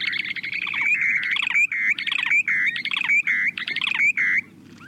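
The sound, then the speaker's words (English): A short-billed dowitcher's bubbling, trilling breeding song runs in quick repeated bursts for several seconds, bright and fairly loud, with a faint low rumble underneath and no voices. The bird calls in flight, gliding earthward from 150 feet above ground with its beak open. “You can hear their bubbling and trilling from up to a quarter mile away.”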